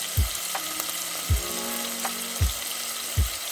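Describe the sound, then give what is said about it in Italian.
Meat sizzles steadily as it browns well in a pan before hot water is added, a continuous crackling hiss broken by four soft, low thuds spaced about a second apart, like stirring or shifting the pieces. “Allora, come vedete la carne è ben rosolata, adesso è il momento di aggiungere l'acqua calda.”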